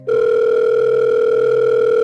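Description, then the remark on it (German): A steady electronic ringing tone on a telephone line, one loud, unbroken beep held for about two seconds with no voices present. “Das Telefon klingelte.”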